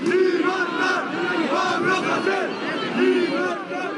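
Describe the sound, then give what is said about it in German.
Several hundred demonstrators march through the streets of Barcelona demanding freedom for a jailed rapper, chanting in unison, rhythmic shouted phrases rising and falling in waves over a constant roar of many voices, loud throughout. “Mehrere hundert Demonstranten fordern Freiheit für den Rapper und ziehen durch die Straßen von Barcelona und anderen katalanischen Städten.”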